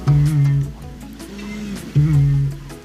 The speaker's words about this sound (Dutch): een roerdomp volgens mij.